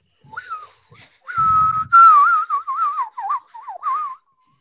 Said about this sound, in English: Not like that. I can whistle weird noises.